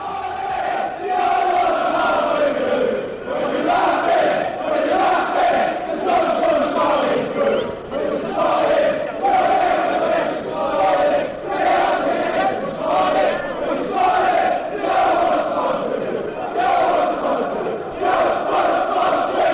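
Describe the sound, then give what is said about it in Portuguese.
A large stadium crowd of Leicester City football supporters chants together in a loud, continuous, rhythmic song, the massed voices swelling and repeating steadily throughout with no individual speaker standing out. “Vamos ouvir Leicester City no som das torcidas”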